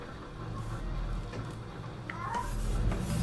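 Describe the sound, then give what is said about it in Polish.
A cat gives a short, soft meow or two partway through, inside a car being driven in Kraków, Poland, heard against a steady rumbling background noise with no clear talking. “Kot może troszkę miauczyć tu, niestety koty coś ostatnio dają popalić.”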